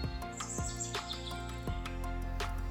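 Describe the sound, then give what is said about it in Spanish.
A chiguanco thrush sings in short, bright chirping phrases with quick upward sweeps, repeated several times over a steady, sustained tonal background that hums underneath throughout. “El canto del chihuanco para mí sigue guardando los recuerdos de mi niñez, de aquellas vacaciones tan esperadas.”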